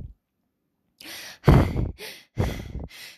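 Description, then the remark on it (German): A voice imitates a little hedgehog's breathless panting as it arrives with its friends, a badger, a fox and a hare, after walking back to a hill: about five quick, airy huffs in a row after a short silence, moderately loud, with no words. “Darf ich vorstellen, das sind meine Freunde, keucht der kleine Igel, wo sie bei den beiden Eichhörnchen ankommen.”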